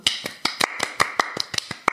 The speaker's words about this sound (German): Äh, ja, da einen kleinen Applaus hin.